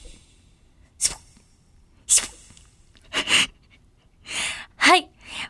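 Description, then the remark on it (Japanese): A voice imitates a LINE sticker notification sound, for a newly released LINE sticker set. There are six short, breathy vocal bursts spaced about a second apart, fairly loud, the last ones rising into a brief pitched chirp, with no other sound. “もうわかりましたねそうです !LINE スタンプの音ですわーい わかりますか皆さん ちょっと結構頑張ったんですけどね。”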